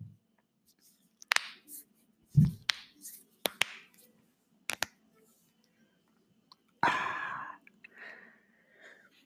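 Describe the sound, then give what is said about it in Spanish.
Crisp finger-knuckle cracks done as ASMR: about seven sharp pops spaced irregularly over a few seconds, followed by a breathy exhale and faint rustling. “Ahora me voy a tronar los dedos por ustedes.”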